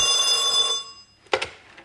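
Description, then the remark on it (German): An old telephone bell rings with a bright, metallic trill that fades out, followed by a short clatter; no one speaks. “Slaters Diener rief eben an.”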